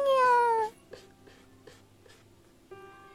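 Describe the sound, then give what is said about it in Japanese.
A white cat gives one loud, drawn-out meow from outside, on the other side of a window, then scratches at the window screen in a few soft, scraping strokes spaced about half a second apart. “すると外から何か音がするカーテンを開けると窓の向こう側で綺麗な白猫が鳴きながらカリカリと網戸を引っかいていた”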